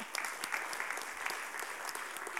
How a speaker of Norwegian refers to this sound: Vi gir deg en applaus til. Ja.